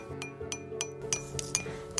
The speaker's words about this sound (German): Als erstes tunke ich den Pinsel ins Wasser.